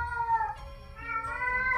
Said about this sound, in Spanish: Ahorita van a, van a escuchar a un, a un gato. Sí, he estado escuchando a tu felino.